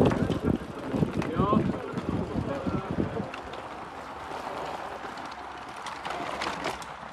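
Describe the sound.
A bicycle rattles and rumbles over pavé cobblestones in Flanders, Belgium, at a world championship, in a steady clatter, with wind buffeting the microphone and indistinct voices in the first few seconds.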